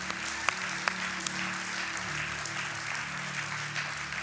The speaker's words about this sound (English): Let's give the Lord a hand.